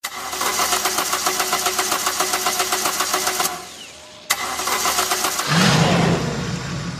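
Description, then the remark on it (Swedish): A loud car engine roars at full throttle, drops off briefly as if shifting gear, then surges again with a climbing, revving pitch. No one speaks. “Ah, ja, pl plattan i mattan, då, då kör vi.”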